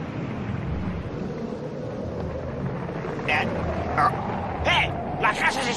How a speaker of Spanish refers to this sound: Y además cada vez están más cerca las olas, qué bonitas.